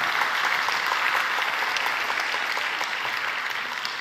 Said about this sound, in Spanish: Si va a aplaudir, aplauda bien, hermano.